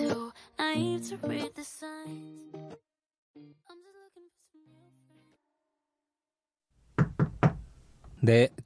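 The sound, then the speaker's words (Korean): A few sharp raps on a wooden door, clear, arriving after a stretch of music that fades into near silence; a voice follows right after the knocks, saying 'come in' in Korean. “들어오세요.”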